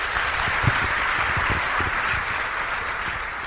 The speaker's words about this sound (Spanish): Yo te felicito por estar aquí porque tú no eres uno de esos, tú quieres más y lo estás demostrando. Un aplauso, gente.